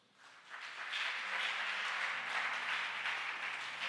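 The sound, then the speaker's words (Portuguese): An audience at a church service breaks into sustained applause for God after a prayer, many hands clapping in a dense, steady wash that swells quickly and holds loud throughout, with a faint low tone humming underneath. “Aplauda Ele.”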